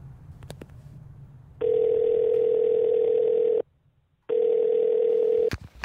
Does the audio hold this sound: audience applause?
no